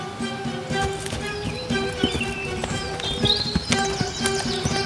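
donkey hooves clip-clopping

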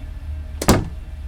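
door opening

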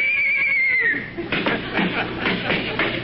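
horse whinnying

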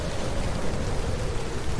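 heavy rain

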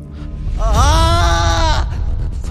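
loud scream

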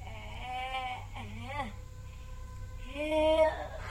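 person groaning

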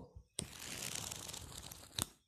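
book pages being flipped

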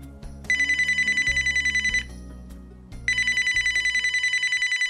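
phone ringing

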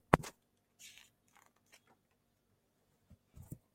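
window being opened

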